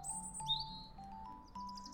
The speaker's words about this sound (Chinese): 这一路上啊，小鸟开心的歌唱，伴着陶乐斯那双银色鞋子踩在砖块上面的声音，空空空的，就像一起在演奏一首优美的乐章。